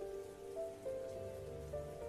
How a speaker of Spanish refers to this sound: Cabe mencionar que la lluvia no había disminuido en toda la noche.